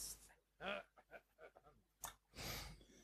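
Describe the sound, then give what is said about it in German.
Faint, muffled throat clearing in a few short rough bursts, ending in a longer breathy rasp, all quiet, with no talking; a person deliberately clears their throat while testing a microphone's cough button. “Ich räuspere mich nochmal und zwar jetzt”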